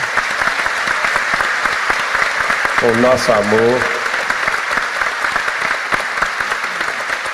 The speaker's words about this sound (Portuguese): agradecer de toda a alma e de todo o coração a equipe maravilhosa do grupo Espírita Seara de Deus, principalmente na pessoa de seus fundadores, que eu pediria uma salva de palmas aqui,